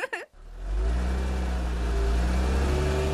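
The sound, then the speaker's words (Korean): A newly bought car pulls away on a cool early-autumn night, its engine rising into a steady, loud acceleration, a deep low rumble with climbing engine tones, after a brief sharp sound at the start. “그날 우리는 시원한 초가을 밤 공기 속을 달리면서 아이처럼 마냥 즐거워했죠.”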